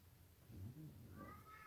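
A faint, distant cat meows once or twice, a thin drawn-out cry rising over a low background rumble, with no talking.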